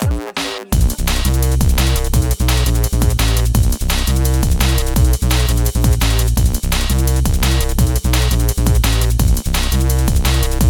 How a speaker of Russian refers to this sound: фильм называется Down House, к которому полностью был э, сделан саундтрек …